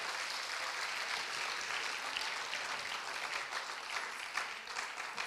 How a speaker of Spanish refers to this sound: Sí, denle el aplauso al Señor. Sí.